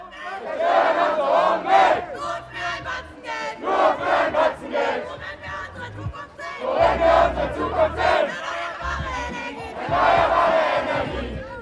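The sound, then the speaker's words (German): A crowd of about 2000 school students at a climate strike protest on the Opernplatz in Frankfurt, Germany, chants in unison outdoors, voices rising and falling in repeated rhythmic bursts with brief dips between phrases, loud and energetic throughout, with low rumbling beneath. “Sie sind laut und auch ein bisschen wütend.”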